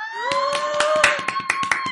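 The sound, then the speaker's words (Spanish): A steady run of sharp hand claps, about ten in two seconds at a brisk, slightly uneven pace, over a sustained high electronic tone. “Aplaudí mucho menos que esto ayer en Endgame.”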